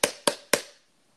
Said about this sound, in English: That's not that's not a clap. That's not a clap. That's a, I, that's I'm banging against the plastic cup.